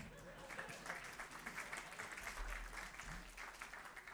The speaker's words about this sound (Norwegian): Ja, du kan bare klappe.